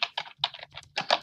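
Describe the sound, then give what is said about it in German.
Quick keystrokes clatter on a computer keyboard as a search is typed, in an uneven burst of about seven clicks, some doubled, with no voices. “Nee, das sollte man nicht in Google eintippen.”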